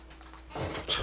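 Soft, steady rain hisses and patters, heard inside a recording studio during a recording, faint at first and then swelling slightly louder for the second half, with no one speaking.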